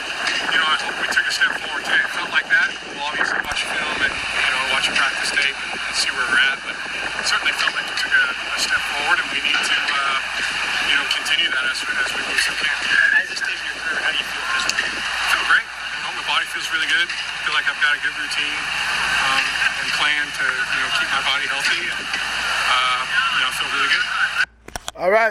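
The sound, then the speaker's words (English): Wind buffets an outdoor microphone in a steady, rough hiss that runs the whole time, with people talking over it and other background noise in the mix, including a jugs machine. “Matt Ryan, a little wind interference, and the jugs machine still there.”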